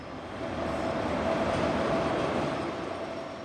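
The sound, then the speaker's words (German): A train rolls slowly into a station, a few minutes early after a nine-hour journey, with a steady, broad rumble and faint metallic tones, holding an even loudness throughout with no voices. “Dann rollt der Zug langsam in den Bahnhof ein, einige Minuten zu früh, nach neun Stunden Fahrt.”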